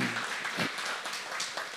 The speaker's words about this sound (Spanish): Amén. Un aplauso al Señor.